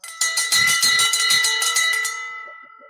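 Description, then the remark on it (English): A golden bell rings loudly and rapidly in celebration, a quick flurry of clanging strikes for about two seconds, then a bright metallic ring fades away on its own. “The Golden Bell.”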